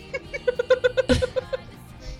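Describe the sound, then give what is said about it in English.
A person imitates a cat with a quick run of short, voiced, meow-like yelps in a steady rhythm, fairly loud, with a brief breathy burst partway through. “I love that we're talking about wolves and I meow, and then we decide that wolves can talk so technically, wolves could meow if they wanted to.”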